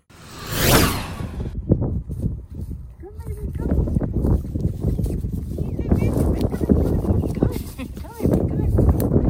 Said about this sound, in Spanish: Esto hice en mi cumpleaños. Los vecinos tienen unos caballos y muy lindos. Nos dejaron venir a estar con ellos. Y aquí estoy dándoles de comer.